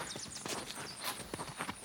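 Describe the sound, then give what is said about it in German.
A horse's hooves clip-clop in a steady walking rhythm on a farmyard in scorching heat, a series of sharp knocks at moderate volume with light background noise and no voices. “Da, Schau mal, das Pferd.”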